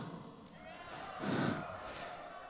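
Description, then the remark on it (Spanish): A crowd applauds and cheers at moderate volume after a piano performance, swelling briefly near the middle before settling back into steady clapping and murmuring. “Denle un aplauso, por favor.”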